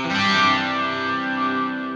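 A rock song released on the independent label Maxilar Records plays with heavily distorted, effects-laden electric guitars forming a dense, sustained wall of sound at a steady, fairly loud level, with no voices.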